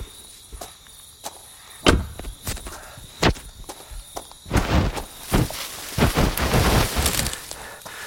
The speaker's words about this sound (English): I'm walking into. It's, it's, it's not quite forest, it's, it's more like high grass, trees.